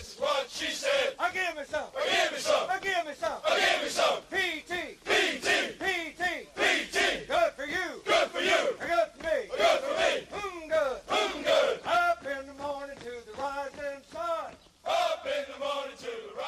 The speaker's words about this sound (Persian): یه دفعه صدایی به گوشمون رسید. صدایی مثل آواز خوندن. بعد تبدیل شد به دو صدا، سه صدا و بعد صدای همه.